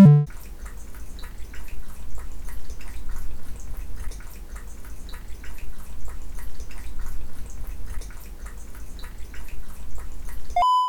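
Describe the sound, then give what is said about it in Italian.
ASMR-style water drinking: soft wet sips, small drips and mouth clicks scattered steadily over a low, constant rumble, with no talking. “Mentre aspettate una SMR di maghi che beve l'acqua.”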